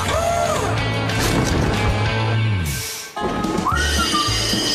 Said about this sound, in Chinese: 刹车刹得住了，哇呼！小丽清干净的铁道让火车停下来了。